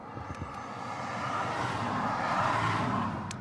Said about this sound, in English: Two cars back to back. Yeah, they were. They're one for the thrill seekers racing. That was uh, two Fiestas.